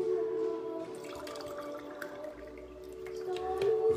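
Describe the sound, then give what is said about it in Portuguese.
Water pours steadily into a drinking cup as someone refills it, a continuous trickle whose ringing tone rises slightly as the cup fills, with a few small splashes along the way. “Deixa eu encher meu copo com água aqui que eu esvaziei.”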